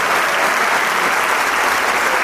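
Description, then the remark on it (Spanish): Sustained, dense applause from a large concert audience, an ovation after the orchestra's performance as the whole orchestra stands with the conductor to receive it, a steady wash of many hands clapping at once with no pauses, loud throughout. “Sale una vez más el maestro Chad dice, vea, recibe ese aplauso que merece Se levanta toda la orquesta para recibir junto a él esta gran ovación esta merecida ovación por una interpretación excelsa.”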